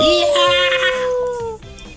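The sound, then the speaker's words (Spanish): A long, loud, high-pitched scream holds and slowly sinks in pitch over a driving musical beat, then cuts off as a second, fainter cry begins. “Eh, eh, eh, un grito. Son dos gritos, de hecho.”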